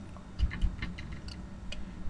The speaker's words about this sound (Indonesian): agak berisik karena ini agak berangin gitu di luar kayaknya mau hujan dan kaca aku tuh agak bunyi-bunyi